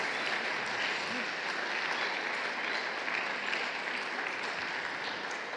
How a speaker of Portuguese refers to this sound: Então, você pode aplaudir o Espírito Santo por isso?